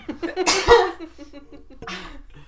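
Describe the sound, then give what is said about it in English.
A single sharp sneeze bursts out with a bright, airy blast, followed by quiet breathy murmurs and a second softer exhale or chuckle. “I have to sneeze.”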